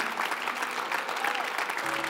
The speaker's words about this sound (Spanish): Pensé que iban a aplaudir más, no sé. Pensé que iban a alegrarse más, no sé.